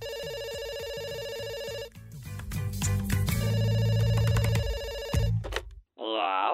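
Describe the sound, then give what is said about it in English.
A telephone rings on the line with loud, steady electronic tones and busy clattering underneath, a call to a switchboard number trying to reach Santa, cutting off briefly before a voice begins speaking at the very end. “I'm ringing back because I was put through to the wrong number”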